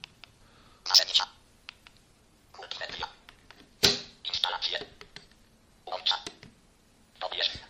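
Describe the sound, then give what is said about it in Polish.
Muffled mobile phone keypad beeps come in quick bursts of several presses as the phone's menus are navigated quickly, pausing between clusters, fairly faint with soft clicky texture; the phone is held in hand and its keys are pressed deliberately loudly. “kiedy szybko nawigujemy”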